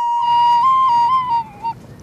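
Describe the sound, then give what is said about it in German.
A recorder plays a brief, breathy melody from the German children's song Alle meine Entchen, a few closely spaced, mid-high notes for about a second and a half, loud and steady over a faint low background murmur. “Alle meine Entchen, das bekannteste deutsche Kinderlied, auf der Blockflöte spielen.”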